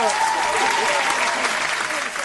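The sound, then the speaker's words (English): A crowd claps together in dense, continuous applause that stays loud and steady for a couple of seconds, with a few voices faintly mixed into the noise. “we going to give you the motherfucking clap.”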